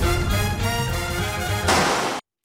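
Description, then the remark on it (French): Dense, swelling music plays throughout, then a single loud gunshot bursts out near the end, its harsh blast ringing briefly before the sound cuts abruptly to silence. “Waouh, ça termine sur un coup de feu.”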